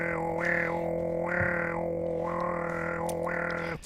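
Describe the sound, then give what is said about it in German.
A European nightjar's churring song: a steady, dry mechanical trill running unbroken for several seconds, its pitch dipping and rising at regular intervals, clear with no one talking. “Der Ziegenmelker klingt wie? Ja, äh, wie ein altes Schwindenrad, so ja. er schnurrt so.”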